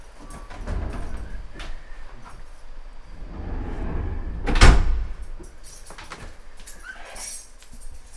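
The funicular operator closes the car's sliding doors: they rumble shut, ending in one loud clunk near the middle, followed by quieter rattles and mechanical knocks inside the car. No one speaks.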